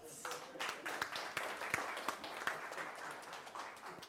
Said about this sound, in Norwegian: Takk skal du ha. Gi dem en klapp.